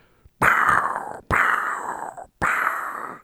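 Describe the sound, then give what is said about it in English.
A voice imitates gunshots from a gun range with three harsh, breathy bursts. Each burst starts abruptly and trails off in under a second, separated by brief pauses, fairly loud. “It was just a gunshot.”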